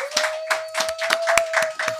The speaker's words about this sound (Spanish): Pero con nosotros den un aplauso a nuestro querido